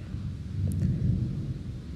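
A low, continuous rumble of thunder rolls steadily for a couple of seconds, swelling slightly in the middle, with no voices present.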